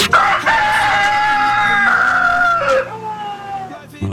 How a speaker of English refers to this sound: was our sick rooster.